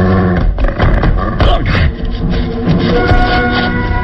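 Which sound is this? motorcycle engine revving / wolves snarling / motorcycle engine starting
wolves snarling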